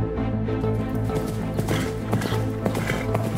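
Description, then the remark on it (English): Horse hooves clip-clop in a loose, uneven rhythm as a horse is ridden out in front of soldiers. A handful of hoofbeats sit over a dense, steady low rumble of background noise. “rode his horse out in front of his men and turned to face them.”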